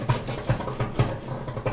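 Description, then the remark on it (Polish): A gas stove burner pops and ticks repeatedly, a series of sharp, fairly loud clicks at an uneven pace over a low steady hum, with no voices. “Coś tu za głośno mi pyka.”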